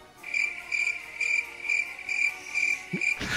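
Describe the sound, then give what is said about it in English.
A cricket sound effect: crickets chirp steadily in a high, shrill trill, pulsing in regular bursts about twice a second, alone, until a brief rustle cuts in at the end. “Cricket, heavy, cricket heavy episode.”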